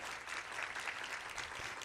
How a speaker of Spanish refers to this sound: Qué precioso. Dele un aplauso al Señor si quiere.